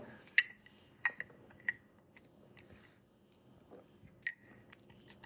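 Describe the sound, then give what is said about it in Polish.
Someone takes a drink break through a glass straw: several sharp, bright glass clinks ring out, with soft sipping and swallowing noises in between and no talking. “przerwa na piciu.”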